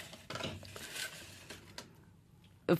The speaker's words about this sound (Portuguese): Esta é a nossa famosa tombola redonda, já se tornou um ritual neste programa. Estes papelinhos coloridos são pensamentos, reflexões, frases. Por favor, baralha e retira aleatoriamente. Ah, baralha-se um assim? Baralha como quiseres e retira um.